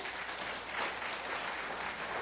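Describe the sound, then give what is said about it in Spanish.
A church audience applauds for God, a dense, steady wash of many hands clapping at an even level for a couple of seconds, with no voices standing out. “Pero, déme un fuerte aplauso a Dios.”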